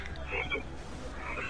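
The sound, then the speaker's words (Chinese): A frog croaks in a steady run of low, raspy, throaty calls that stay fairly loud for the whole moment, with no talking over them. “瞧我的，我骑一下那碗汤，嗯嘛，它就会变成会唱歌的青蛙。”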